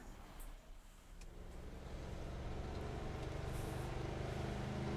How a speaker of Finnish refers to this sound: Mutta hetkinen, mikäs auto se tuolta tulee?